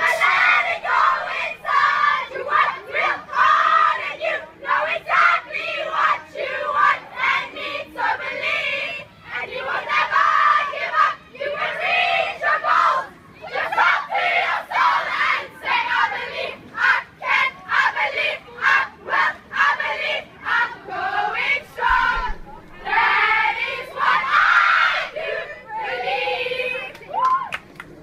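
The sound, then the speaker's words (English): A large group of girls from Pretoria Girls High chants a loud, rhythmic school war cry against Pretoria Boys High, their high voices shouting and yelling together in bursts of call-and-response with brief pauses between lines. “Who's giving you more cheers to start your week? Let's start with the girls.”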